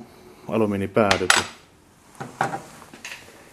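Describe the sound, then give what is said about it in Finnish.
A tiny metal screw falls off a fishing reel and bounces, giving a quick cluster of bright, ringing metallic clinks followed by a few lighter, scattered ticks as it settles. “Ja sitten tota noin, yksi osa tippu.”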